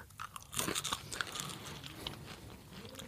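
Crunchy chewing of an edible grasshopper: a burst of crisp, crackling bites, then steady softer mastication continuing for a few seconds, with no talking.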